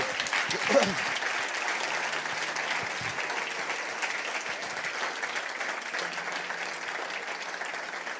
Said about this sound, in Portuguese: Levanta lá assim a tua mão direita e diz assim comigo: Deus deu-me a capacidade de sacudir qualquer mal se tu crês nisso, vamos dar uma salva de palmas a Ele no nome de Jesus.